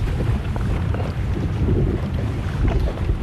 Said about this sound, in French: on est sur ton bateau, on est parti en pêche. À quelle heure on est parti On est parti à 6 heures.